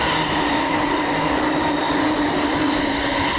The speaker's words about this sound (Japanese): めっちゃ音うるさかったですね電車沿いから勘弁してなんかめっちゃくちゃ飛ばす特急みたいなのよく走りましたね